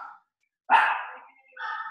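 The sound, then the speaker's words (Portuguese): Several dogs bark in loud bursts: a clipped yelp, a short pause, then a strong bark that trails off, followed by another sustained bark, with no one talking. “Espera aí que cachorrada coisou aqui.”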